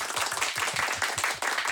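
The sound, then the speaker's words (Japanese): An audience at a live public event applauds steadily, many hands clapping at once in a dense, continuous patter at a fairly even loudness, with no one speaking over it. “公開妄想イベントをお送りしております後半もよろしくお願いいたします拍手お願いします”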